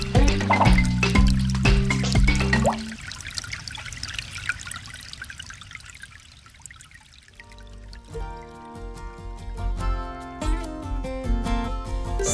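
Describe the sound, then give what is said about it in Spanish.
Water drips and trickles steadily for a few seconds, sandwiched between passages of melodic music that play before and after it; no one speaks. “Gota a gota, el agua se agota.”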